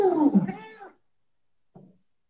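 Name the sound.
cat meowing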